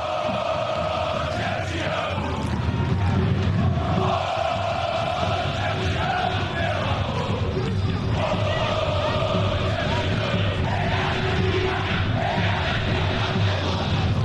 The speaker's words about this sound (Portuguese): Eu fiz esse silêncio para a gente ouvir a música que a torcida da Ponte está cantando. A torcida da Ponte é uma torcida apaixonada, presente.